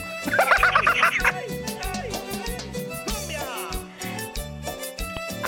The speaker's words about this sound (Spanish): ¿Ya habías escuchado el pajarito?